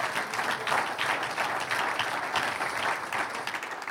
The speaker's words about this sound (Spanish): A Él sea la honra y la gloria. Vamos a darle un aplauso de alabanza.